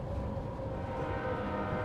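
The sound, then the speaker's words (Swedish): A steady low rumble of a train slowing down as it arrives at Jungfrusjön, the last stop of its journey, with a faint tonal whine on top, continuous and moderately loud with no voices. “Tåget saktade in och familjen Stentroll såg fram emot dagen.”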